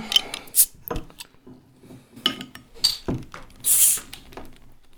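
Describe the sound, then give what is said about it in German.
Clinks and clicks of glass handling lead to a short, bright pop and hiss as a bottle of brewery beer is opened for tasting, with nothing foaming out and no talking over it. “So, plopp hast du gemacht.”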